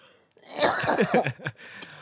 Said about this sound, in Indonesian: Gua batuk dulu kalau itu.